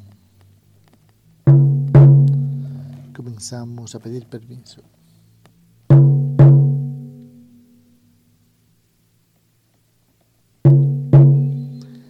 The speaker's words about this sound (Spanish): A continuación, con el sonido del tambor, los latidos del corazón.